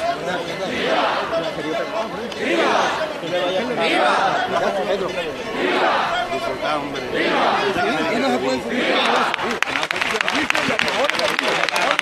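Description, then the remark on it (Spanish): A large outdoor crowd gives a loud, sustained ovation, with cheering and applause rising in repeated swelling waves over a dense, continuous wash of excited chatter. The ovation greets the ox carts of Villamanrique de la Condesa and Bollullos de la Mitación at their presentation on a Saturday during the Rocío pilgrimage. “está la primera ovación para las carretas de Villamanrique de la Condesa y de Bollullo de la Mitación en una jornada, la de este sábado”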